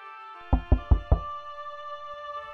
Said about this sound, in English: And the wraith kept talking to himself and calling out to the will of the woods, hoping to muster the courage he needed, until at last the captain knocked on the door.